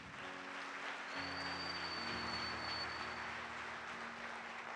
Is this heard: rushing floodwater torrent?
no